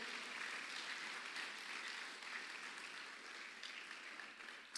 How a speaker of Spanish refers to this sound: Usted le da palmas fuerte al Señor con todo su corazón.